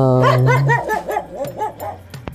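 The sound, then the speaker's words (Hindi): Dogs bark and yelp in a quick, rising-and-falling run of about seven sharp calls, fairly loud, over a low steady drone that fades after the first second. “तेरा गाना सुनकर कुत्ते भी डर गए”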